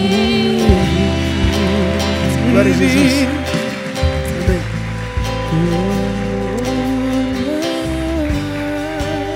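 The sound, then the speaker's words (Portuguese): A church audience applauds loudly and steadily for Jesus, a dense wash of clapping that lasts the whole stretch, with sustained musical chords underneath and a voice calling out briefly over it. “Gente, dá uma salva de palmas aí para Jesus.”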